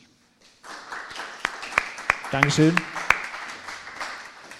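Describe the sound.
Audience applause starts abruptly after a brief quiet moment and continues as a steady wash of dense clapping, with a few sharper claps standing out. A voice briefly speaks over it.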